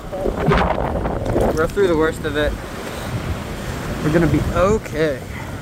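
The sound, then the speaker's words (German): Steady roar of wind and surf rushing against a microphone, with breaking waves underneath and a few voices calling out over the noise; video filmed in early August by a young man standing waist-deep in the sea as fire burns through the coastal town of Lahaina. “Holy ein junger Mann hat sich vor dem Feuer ins Meer gerettet. Bis zum Bauch steht er im Wasser.”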